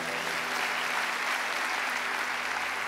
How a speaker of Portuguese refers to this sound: Dá uma salva de palmas para esse coral mais uma vez, por favor.